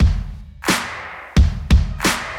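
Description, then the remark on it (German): A chair creaks loudly, four or so sharp groaning creaks in an uneven sequence as someone shifts their weight, with no talking. “auf einem Knatschestuhl sitzt”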